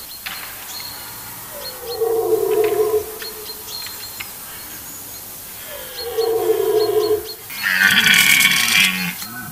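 A rutting stag bellows twice, each call a long, throaty groan lasting over a second, separated by a few seconds. A rougher, noisier burst follows, with faint outdoor background and no talking.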